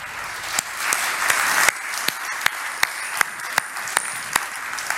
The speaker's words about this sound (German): Lass uns doch einmal kurz unserer Lobpreisband danken mit einem Applaus.